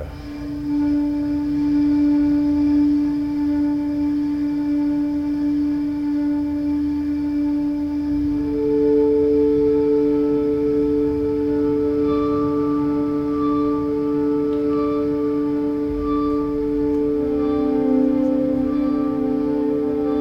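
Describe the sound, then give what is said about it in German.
A sustained, droning electric cello tone, played by a musician with an effects pedal plugged into the cello, with steady harmonics that shift pitch partway through and a slightly gritty, whale-like texture, played alone with no talking. “Und jetzt, wenn man da ein Pedal ansteckt, verbindet, dann klingt das ein bisschen anders im Ton.”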